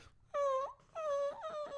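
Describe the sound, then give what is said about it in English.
A person imitates a dog whining at the door while its owners were away: two long, high, nasal whimpers, the second drawn out with a wavering, sliding pitch. No other voices are heard. “just whining at the door.”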